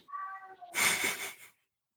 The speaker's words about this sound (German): Ich habe eine Katze, die sich immer noch im Hintergrund beschwert, ey.